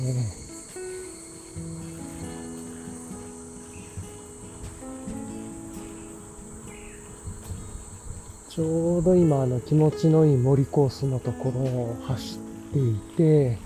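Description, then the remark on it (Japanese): Higurashi evening cicadas call steadily in a forest in Japan in summer, a continuous high-pitched insect chorus running through the whole recording, with a man talking over it in the second half. “聞こえますかね日暮らしかな夏になってきましたね。”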